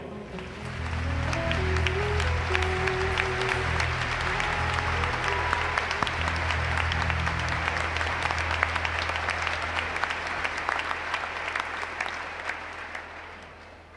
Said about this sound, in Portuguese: Vamos aplaudir nosso Senhor.